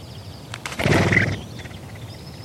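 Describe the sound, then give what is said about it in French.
A crocodile alarm call: one short, rough, grunting cry lasting under a second, loud, rising out of a quiet outdoor background with no talking. “Alors là, on a une femelle qui part du nid avec ses œufs parce qu'elle a entendu un cri d'alarme.”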